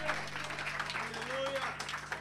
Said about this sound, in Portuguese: Dê uma linda salva de palmas, Jesus. Dê um glória a Deus bem alto aí no seu lugar. Glória a Deus.